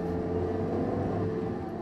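A steady, low engine drone fills the interior of a luxurious Rolls Royce with soft leather seats, Winston Churchill's car, with a constant humming rumble and faint tonal harmonics, unchanging in level and with no voices throughout.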